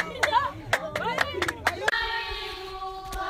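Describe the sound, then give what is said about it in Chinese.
Himba women in Namibia dance to sharp, uneven hand claps, about eight in the first two seconds, mixed with lively rising and falling vocal calls. The clapping stops and a steady sung tone carries on. “这是纳米比亚辛巴红泥族女人跳舞的声音。”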